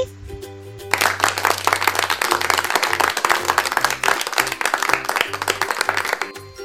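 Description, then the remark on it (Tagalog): A burst of enthusiastic applause, many hands clapping rapidly and continuously for several seconds, starting after a brief pause, with a low steady hum underneath. “Palakpak nga ang mga kamay.”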